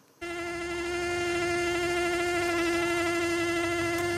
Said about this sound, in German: Um diese Jahreszeit summend und brummend normalerweise die Bienen. Das aber nicht überall in der Schweiz. Im Mittelland mögen sie momentan nicht so recht. Es ist ihnen zu kalt zum Fliegen.